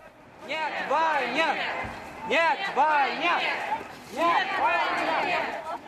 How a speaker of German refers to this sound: Nein zum Krieg. Das ist der Ruf der Proteste, wie hier zu hören in der Hauptstadt Moskau.